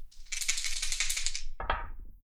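Dice rattle briskly in a cup for over a second, then spill out in a short, sharp clatter across a hard surface, fairly loud, with no voices, rolled again in a U-boat game to determine wounds to the crew.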